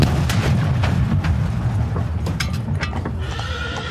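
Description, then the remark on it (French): Horses clatter and whinny as a carriage carrying Napoleon and Josephine to the opera rolls along on 24 December 1800, then heavy booming blasts like a gigantic explosion burst through in the Palais Royal quarter, loud, with no talking. “Ils s'y rendent en carrosse, mais soudain, dans le quartier du Palais Royal, retentit une gigantesque explosion.”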